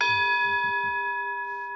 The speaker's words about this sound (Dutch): Jij gaat het niet horen, maar ik ga nu een gong laten horen